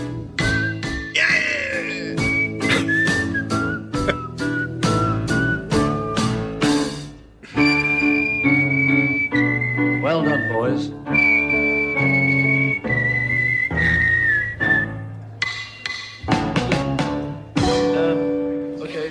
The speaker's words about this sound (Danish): Dejligt stykke med fløjt. Så er den der.